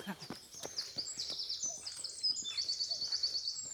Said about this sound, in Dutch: Mooi hè, al die vogeltjes.